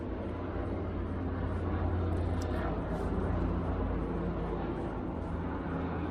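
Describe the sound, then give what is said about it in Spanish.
A helicopter passes overhead, its engine and rotors making a steady, heavy rumbling drone that stays loud and constant throughout, with no voices. “Así que, como ven, está pasando un helicóptero por aquí.”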